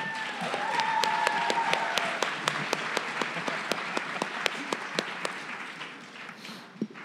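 A crowd at a live event applauds steadily before a Q&A session, a dense wash of many hands clapping at once, with a few sharper individual claps standing out as the applause slowly thins toward the end.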